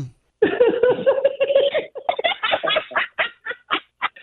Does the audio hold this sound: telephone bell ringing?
no